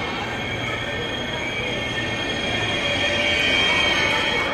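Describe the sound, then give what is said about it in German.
A high-speed ICE train from Basel rolls into a station at platform 4, steady, with a continuous low rumble and high metallic wheel squeal that swells slightly toward the end. No one speaks. “Auf Gleis 4 fährt ein der ICE aus Basel.”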